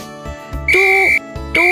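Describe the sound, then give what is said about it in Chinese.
Shrill whistle blasts sound twice, each a loud sustained high tone held for about half a second, separated by a short pause, with faint low thumps beneath. The whistle is blown by security guard Pipi, a golden retriever, as he runs over fiercely. “然而，没过多久，保安皮皮就发现了胖仔的违规行为，吹着口哨，气势汹汹地跑了过来。”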